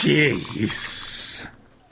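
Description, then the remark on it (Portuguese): A short exclamation from a voice, then a loud, bright fizzing hiss that surges for under a second as a drink can is cracked open to be poured into a glass during a toast, before cutting off into quiet. “Vou abrir a lata que escuta.”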